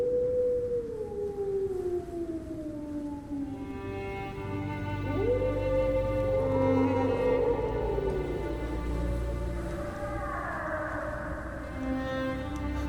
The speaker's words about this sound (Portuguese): E você escuta uivos.